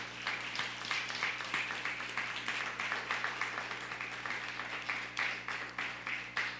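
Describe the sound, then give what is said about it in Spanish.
A crowd applauds all the nations, many hands clapping in a dense, continuous patter with crisp, bright slaps. It holds at an even, moderate loudness throughout, with no voices on top. “Nuevamente, denle un fuerte aplauso a todas las naciones.”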